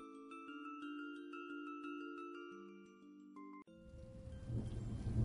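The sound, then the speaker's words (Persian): Sustained musical tones ring for a few seconds, then break into a steady wash of rain with a low, swelling rumble of thunder growing louder toward the end. “بارون اومد با قطره هاش نم نم تیک تیک بارید و بارید با دونه هاش”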